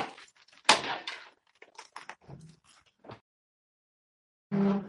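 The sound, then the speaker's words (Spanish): A door swings shut with a sharp thud, followed by scattered knocks and rattles, then quiet, and a short low rumbling creak near the end. “la puerta, cierra la puerta, que hace más frío.”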